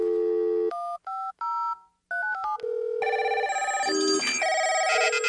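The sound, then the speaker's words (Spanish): A quick run of touch-tone keypad beeps as a phone number is dialed to call in an answer to a radio quiz, short two-tone bursts in a staccato sequence, followed by a bright, busy electronic tone pattern with no voices. “Es momento de responder la pista y llamar.”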